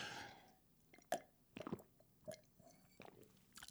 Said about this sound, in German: Ja, das bedeutet auch, und das habe ich auch aus anderen Podcasts, dass man mal irgendwie was trinken muss zwischendurch. Das hört sich dann so an.